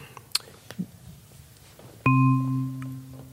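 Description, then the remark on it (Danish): After a quiet stretch of faint rustling and soft clicks, a single bright bell chime rings out loudly and sustains, its layered tones humming steadily until the end. “jeg var lige ved at glemme klokkelyden der, men her kom den.”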